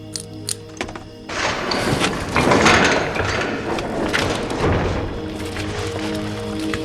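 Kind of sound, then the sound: household object, gate opening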